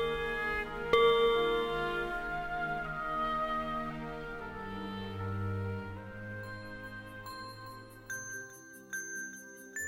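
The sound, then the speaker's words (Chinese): Layered bells ring out together, a sustained wash of clanging, resonant tones with a bright strike near the start, later joined by sharper, high tinkling chimes in a quick repeating pattern. “可是啊，即使他们已经远离了战场，钟声还是紧紧的跟随着他们。”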